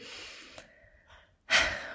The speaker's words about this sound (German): und jetzt atmen wir nochmal tief durch.